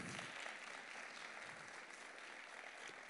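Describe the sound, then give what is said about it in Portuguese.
An audience applauds the actors steadily, a dense wash of many hands clapping at an even, sustained level throughout, with no pauses or voices standing out. “Aplauda aí os atores aqui, ó.”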